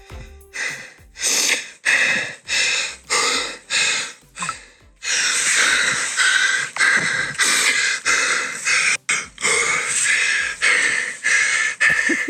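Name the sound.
heavy breathing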